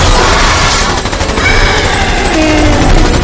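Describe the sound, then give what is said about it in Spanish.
A loud, continuous barrage of rapid gunfire as shots are fired at mummies from a bus, shots blurring into a dense crackling roar with faint whining tones beneath; no one speaks. “Arde dispara.”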